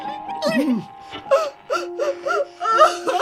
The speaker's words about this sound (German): Hör auf! Hör bitte auf! Bitte weine nicht!